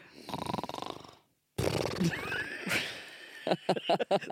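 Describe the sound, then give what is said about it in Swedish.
A recorded snore: a rough, rattling rasp, then a brief silence and a longer snorting, whinny-like stretch ending in short choppy bursts. It is loud, with no talking. “Men, det kan låta som en snark. Var, du, så här var det på mitt snark.”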